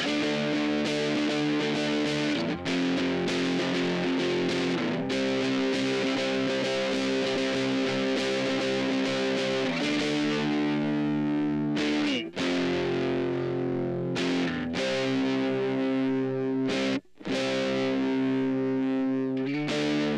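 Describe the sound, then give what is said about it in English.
A heavily distorted electric guitar plays a loud, sustained chorus part through a Boss DS-1 distortion pedal set to tone 10 o'clock, level noon and distortion 1 o'clock, with thick fuzzy chords ringing out and brief pauses between phrases, no voices present. “the chorus, the guitar is heavily distorted”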